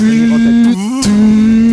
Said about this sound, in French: Là, il y a le bruit des plateformes qui disparaissent.